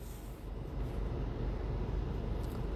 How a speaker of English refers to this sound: You know I'm in the car sitting outside waiting for my pizza.